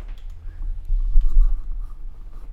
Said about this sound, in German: Ich hole mal die Tafel. So. Und zeige euch das mal ganz kurz. Also wir starten ja, wenn ich das jetzt einfach mal so irgendwie aufschreibe